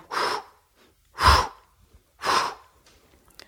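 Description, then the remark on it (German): A voice imitates the breathing rhythm of a jogger or cyclist: three forceful, breathy exhalations spaced about a second apart, moderately loud, with no other talk. “es gibt tatsächlich zwei grundverschiedene Atemrhythmen”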